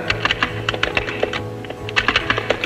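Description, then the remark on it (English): Rapid, uneven typing on a computer keyboard as a man writes words, a steady patter of keystrokes with brief pauses and a faint low hum in the background. “so he's he's writing words down.”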